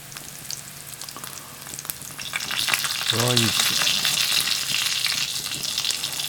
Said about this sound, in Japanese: でだんだんこう香りが出てほんのりにんにくがきつね色ぐらいになってきたらここにオリーブを入れていきます